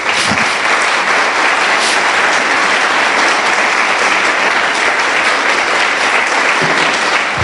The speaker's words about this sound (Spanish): Dele un aplauso hermoso al Rey de Reyes.